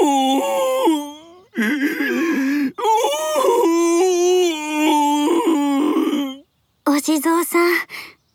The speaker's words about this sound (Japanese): ところで、そんなに泣いてどうしたの